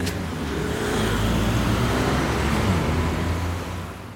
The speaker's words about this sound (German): Und eines von ihnen startet genau hier, am Anlagenring in der Innenstadt. Aktuell gehört der noch ganz dem Autoverkehr, wie allein die Geräuschkulisse unschwer erkennen lässt.